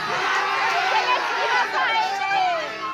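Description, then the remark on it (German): A dense crowd of many voices at a small pub, outside under an awning on a rainy December day while watching a screen, chatters and shouts over one another, a loud, steady hubbub with overlapping raised voices and no single speaker standing out. “Alle hier werden laut.”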